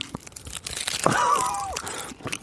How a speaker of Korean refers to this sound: 자, 한 입. 어, 어. 저 씹는 게 약간 어 좀 다른데.